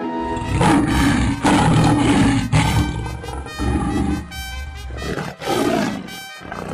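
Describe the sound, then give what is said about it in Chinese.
A lion roars loudly again and again, deep rumbling growls swelling and breaking off in a series of forceful bursts, with no talking over them. “忽然从草丛里跳出一只健壮的狮子，对着参孙就扑上去。狮子张着血盆大口要吃参孙。”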